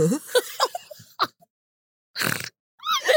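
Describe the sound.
A person imitates a pig's snort, with a few short grunting bursts followed by a longer, raspy snort, then a brief trailing vocal sound.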